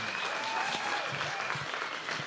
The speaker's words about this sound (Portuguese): Aplauda bem forte ao Senhor, em nome de Jesus. Aleluia!